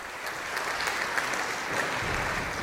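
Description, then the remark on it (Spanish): Steady applause from a theatre audience after a singer finishes singing, a dense patter of many hands clapping at an even level throughout, with no voices standing out. “terminaste de cantar y todos aplaudieron.”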